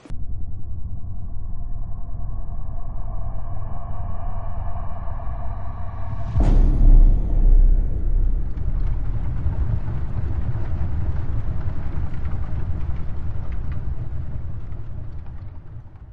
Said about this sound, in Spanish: un estrépito sordo y retumbante de algo que se hacía pedazos en el exterior